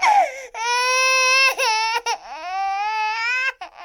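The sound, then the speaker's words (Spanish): A video game fan wails and sobs in long, high-pitched, drawn-out cries, loud, with brief catches of breath between bursts of weeping. “O entran en llanto.”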